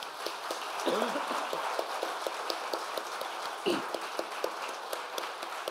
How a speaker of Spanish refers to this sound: Demos un aplauso fuerte a nuestro Dios.